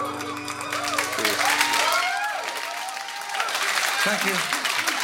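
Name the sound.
applause sound effect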